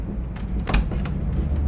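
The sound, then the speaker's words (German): A train compartment's sliding door rolls open with a short rattling whoosh and a dull thump as a tall, heavily built man enters without knocking, set against a steady low rumble like a moving train, no voices present. “Wir gehen in unser Abteil rein, schließen die Tür hinter uns und plötzlich betritt ein Mann unser Abteil.”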